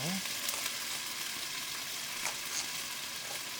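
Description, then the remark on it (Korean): Chicken frying in hot oil and spattering a lot, a steady dense sizzle with frequent sharp pops and spatters, fairly loud, with no talking. “닭 타지 않는 기사에 힘들어지면서 예상대로 엄청 많이 튀네요.”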